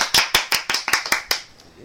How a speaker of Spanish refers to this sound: Un aplauso para el pregonero, por favor.